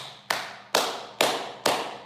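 Four sharp hand claps applauding a speaker, in a slow, steady rhythm, each crisp and bright with a short ringing tail fading before the next. No voices are heard.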